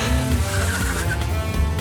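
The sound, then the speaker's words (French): A car engine roars loudly as tires screech and squeal, the vehicle tearing away at top speed in one continuous burst as a double bass player drives off to catch up with the rest of his band. “ce dernier n'a eu d'autre choix que de prendre sa voiture et foncer à toute vitesse pour rattraper le reste du groupe.”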